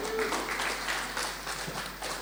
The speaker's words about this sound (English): I want to give the team a hand clap this morning.